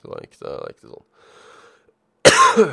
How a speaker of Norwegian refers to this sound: Fortsatt litt av den hosta som sitter igjen fra fra, fra, sykdommen forrige uke, så jeg beklager det. At det blir et par host her og der.